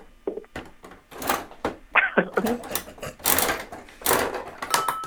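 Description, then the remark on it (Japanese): A capsule toy (gacha) machine being cranked, giving a run of loud ratcheting clicks and clattering knocks in uneven bursts, with a brief voice sound partway through; the capsule drops into a bowl placed beneath the machine. “私これ初めて回すあガチャガチャねこれね”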